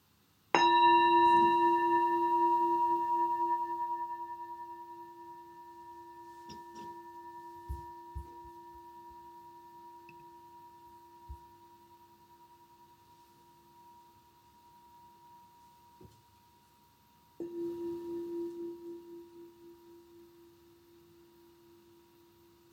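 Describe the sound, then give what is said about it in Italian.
A meditation bell is struck once and its clear, layered tone rings out and slowly fades over many seconds, then a second strike sounds near the end and starts ringing again. “Proviamo a cercare di osservarle entrambe, ascoltando la campana, il suono della campana, osservando il suono e osservando la mente che osserva il suono.”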